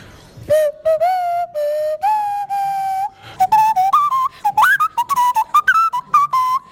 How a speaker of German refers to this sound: Er hat nämlich Geburtstag und bekommt jetzt erstmal ein kleines Nasenflötenständchen.